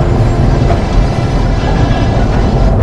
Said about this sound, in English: That's the supply tram. I hear it, it